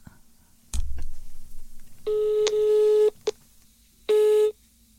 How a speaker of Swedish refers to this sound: Då ringer vi Erik Gadd.